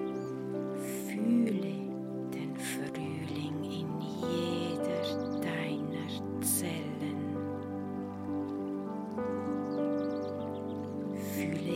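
bird, birds chirping

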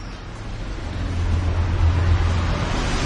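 vehicle, car passing by

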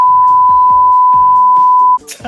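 sound effect, censor beep

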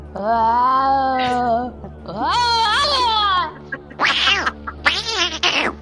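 animal, cat meowing

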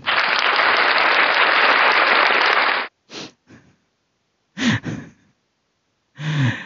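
crowd, hand clapping

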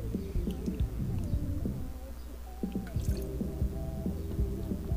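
human body sound, drinking water

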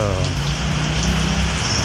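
nature, rain

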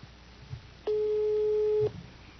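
signal or alarm, telephone call tone

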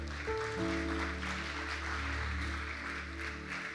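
crowd, audience applauding

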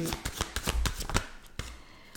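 household object, shuffling tarot cards

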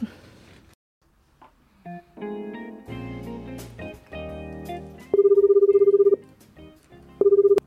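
signal or alarm, telephone ringing

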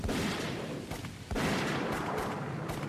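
impact, gunshots

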